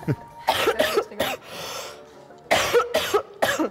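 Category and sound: human body sound, coughing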